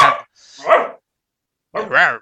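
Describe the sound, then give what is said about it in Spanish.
A very large dog barks three short, tonal barks with a pause before the last one, each loud and slightly whiny, with no other sounds in between. “Oye, me dan, un, minuto para darle un hueso a mi perro que está...”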